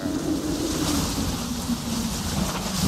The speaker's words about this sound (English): The sea was angry that day.